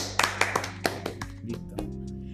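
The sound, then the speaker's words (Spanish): Brief applause from what sounds like one or two people: around ten sharp, crisp hand claps in a loose, uneven rhythm, growing softer toward the end, with no voices. “20 reproducciones, no es menor, Un aplauso de nuevo.”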